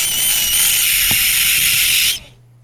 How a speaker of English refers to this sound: that was the sound of a baby gecko acting like a badass, mofos.